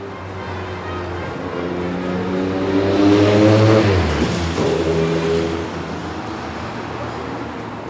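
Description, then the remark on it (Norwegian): Loud, steady street traffic on Boulevard Saint-Germain on the Left Bank in Paris, engines rumbling and a vehicle revving up and pulling away, tyre and motor noise swelling in the middle before settling back to a dense roar. “Boulevard Saint-Germain-Dupré på venstre bredd Trafikken er nesten øredøvende i denne fasjonable gaten.”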